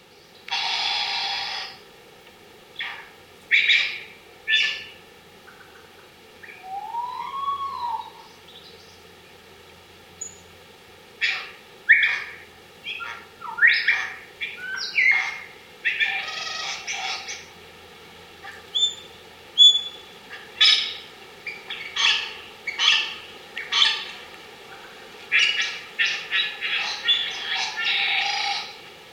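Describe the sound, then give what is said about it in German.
A lyrebird sings, a varied stream of sharp chips, rattling bursts and whistled notes in rapid, repeating phrases that continue throughout, with no voices. “Vogel der Woche: Leierschwanz”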